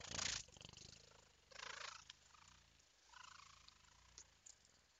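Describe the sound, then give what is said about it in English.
A human voice imitates a cat purring in several rolling, raspy bursts with short breaths between them, moderately loud, with no words spoken. “You know, and just it's easy to purr when you're leaning on a pregnant woman's belly.”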